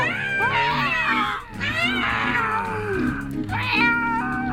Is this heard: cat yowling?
yes